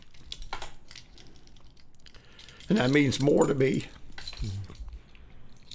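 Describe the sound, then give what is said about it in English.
Keys on an engraved keychain, a Christmas gift from grandchildren, jingle and clink lightly in intermittent bursts while being handled, with a person speaking briefly partway through. “Just an engraved keychain.”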